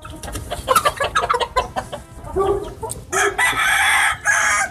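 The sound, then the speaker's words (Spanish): Several chickens cluck in quick, choppy bursts, then a rooster lets out a loud, sustained crow that fills the last couple of seconds, with no one talking. “Me que me voy a robar las gallinas del vecino.”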